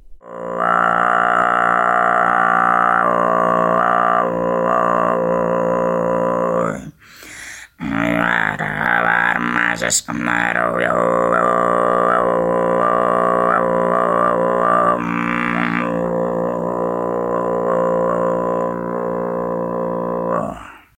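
Deep, growling Tuvan kargyraa throat singing by a woman tensing and vibrating her false vocal folds, a low rasping drone rich in overtones, held loud for long stretches with a couple of brief breaks for breath, performed solo without talk.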